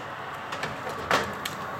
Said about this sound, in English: Can you hear the roar of my oven as I open it? The fan.